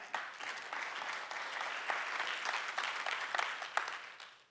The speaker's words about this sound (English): You can clap for that.